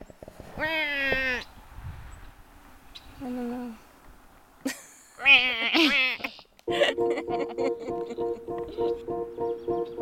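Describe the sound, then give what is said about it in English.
Snow geese call out in a few nasal, wavering honks, loud, in short separate bursts. A brief spoken voice follows, and a steady pulsing tone fills the final seconds. “Snow Geese”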